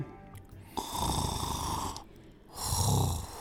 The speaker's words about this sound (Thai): เมื่อเจ้าสุนัขจิ้งจอกรู้สึกอิ่มมันจึงล้มตัวลงนอนอีกครั้ง แล้วก็พลอยหลับไป แล้วมันก็เริ่มกรนด้วยเสียงอันดัง